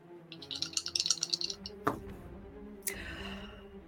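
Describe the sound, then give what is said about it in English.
A player's new dice rattle and clatter in a quick, busy burst of small clicks, then land with a sharp thunk and a second knock a moment later; the roll comes up a twenty. Low murmur in the background. “Please well, Please don't try out my do, new dice, and we will see what happens.”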